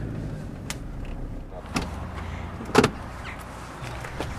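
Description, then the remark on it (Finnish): A door shuts with a single solid thump over a steady low rumble, with a softer knock a moment earlier and faint mechanical noises around it. “Menikö se tuo ovi kiinni?”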